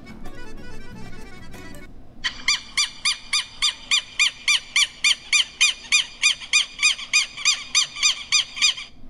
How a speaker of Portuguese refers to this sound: Passarinho, que som então é esse? Lembra? Castelo Ratimbum.